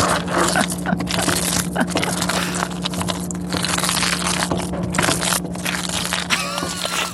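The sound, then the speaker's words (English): Cheese sauce for mac and cheese cooking in a home kitchen, a dense, continuous wet crackle and scrape that stays fairly loud throughout, with a steady low hum running underneath and no voices. “But if you thought we let Blake go without making him play us a recording of the sound of his cheese sauce, think again.”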